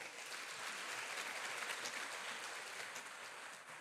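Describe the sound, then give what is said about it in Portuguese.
A church audience claps for Jesus in sustained, dense applause, a steady crackling wash of many hands that holds for several seconds before easing slightly toward the end. “Se você quer na sua oração, aplaude Jesus bem forte.”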